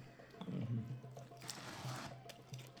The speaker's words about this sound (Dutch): Laten we horen. Een stil biertje. Laten we een ritueel slokje